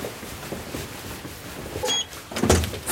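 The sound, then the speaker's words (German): A heavy door is pushed open with a creak and a solid mechanical clunk, followed by a second louder thud of the latch and hinges, with no talking. “So, und es ist eine sehr schwere Tür.”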